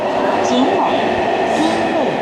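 A London Underground subway train rumbles steadily with a dense, continuous roar and faint metallic whines drifting up and down.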